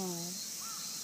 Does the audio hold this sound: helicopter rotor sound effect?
no